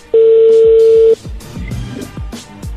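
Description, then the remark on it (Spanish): An incoming phone call connects with a single loud, steady electronic tone lasting about a second, followed by quieter low thumps and a muffled rumble. “Ahí, ahí entró la llamada, permíteme.”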